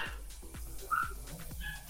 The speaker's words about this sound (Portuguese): Tá ouvindo o barulho de cachorro?